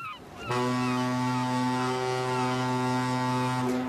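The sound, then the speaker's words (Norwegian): The horn of a Hurtigruten coastal ferry blasts a single long, steady, deep tone for about three seconds, loud, with rich harmonics and no talking over it. “se der, der eh, kommer jo Hurtigruta.”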